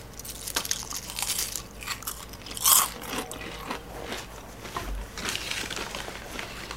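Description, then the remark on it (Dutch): Crisp crunching of chips being chewed, with irregular bursts of crackly bites and one especially loud crunch partway through, no talking. “Lijkt me enorm vervelend om naar de radio te luisteren terwijl iemand chips aan het eten is.”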